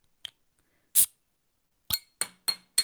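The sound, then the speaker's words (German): A cola drink is opened in front of a running microphone with a small click and a short, sharp fizzy hiss, followed by four quick glassy clinks in a steady rhythm, with no talking. “Ist nur nee. eine Cola, aber. Aber es klingt trotzdem toll.”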